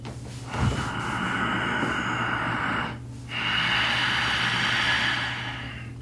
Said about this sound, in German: Der Ujjayi-Atem heißt, dass man die Glottis leicht schließt, die Stimmritze leicht schließt oder auch die Kehle leicht schließt, und dabei entsteht ein langgezogener Hauchlaut.